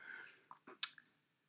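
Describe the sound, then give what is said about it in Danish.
Wet mouth noises of someone drinking a glass of water in Copenhagen: a soft slurp followed by a few quick smacking, squishy gulps and a sharp click, all within about a second, with no talking. “Jeg har aldrig set nogen drikke et glas vand så ulækkert.”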